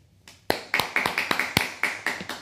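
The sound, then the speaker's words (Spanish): Applause in a quick, even rhythm: about nine sharp, bright claps in steady succession after a faint murmur, loud and crisp with no talking over them. “Aplausos, que nos vemos.”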